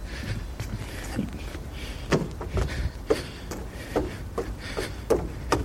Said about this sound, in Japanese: あの、階段上がったり降りたりしてるんで、息が上がってるわ。はい。そういうのも入ってるかもしれませんけども、まあ、ウッドデッキの上歩いてるので、ちょっと足音が大きいですね。